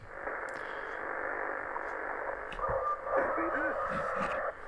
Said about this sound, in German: Ich drehe nur mal ein bisschen übers Band und äh, möchte euch mal den Empfänger vorführen, wie er so klingt, vor allen Dingen auf der Kurzwelle, denn da ist er richtig gut.